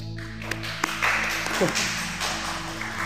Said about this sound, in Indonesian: ayo dong kita tepuk tangan buat pengurus